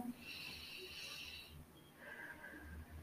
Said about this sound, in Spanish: Entonces cerramos los ojos, hacemos una respiración profunda